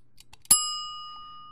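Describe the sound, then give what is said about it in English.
A single bright bell ding rings out clearly after a couple of soft taps, its high metallic tone lingering and slowly fading over the next second. “Okay, that bell tells us that that's all the unpacking that we have for this episode.”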